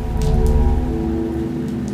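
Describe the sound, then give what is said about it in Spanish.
Steady rain falling, a continuous dense patter with a low rumbling undertone, fairly loud, with no voices. “Yo, eterno amante de la lluvia, acudí de inmediato afuera al olfatear el aire, escuchar el fenómeno pluvial y fumar otro cigarrillo.”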